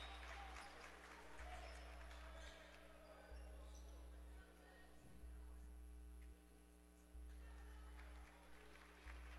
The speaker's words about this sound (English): And some applause for Maxwell as he comes to the bench.